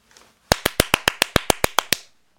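A quick, steady burst of about eleven sharp hand claps by a host congratulating a listener, loud and evenly spaced over roughly a second and a half, with no talking over them.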